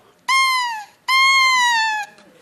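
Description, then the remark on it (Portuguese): Two buzzy, sustained squawks from the double reed of an orchestral instrument blown on its own, its two blades vibrating; each about half a second to a second long, bright and harmonic-rich with a slight sag in pitch, separated by a short gap. “é uma palheta dupla.”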